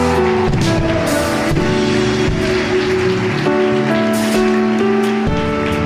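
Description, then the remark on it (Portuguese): A church audience applauding an arriving brother, a dense, steady wash of clapping that fills the whole clip, with sustained musical tones, like a keyboard holding chords, running underneath. “Vamos aplaudir ele aqui, irmão.”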